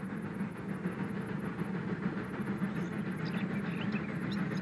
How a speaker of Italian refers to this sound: Vengono in senso inverso! Li faccio saltare! Non passeranno! Ma no, quello non è lo stesso! È un treno passeggeri!